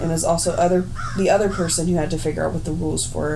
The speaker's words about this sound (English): Did you guys just hear that crow outside, by the way? Yeah.